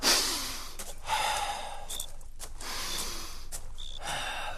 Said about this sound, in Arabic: شنو هو هذا؟ نتنفس مش قلت لي راه تحب تسمع النفس نتاعي اخذ راهو نفس طالع هاو باش يبدا طالع هاو هاو